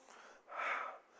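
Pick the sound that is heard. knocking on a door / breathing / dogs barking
breathing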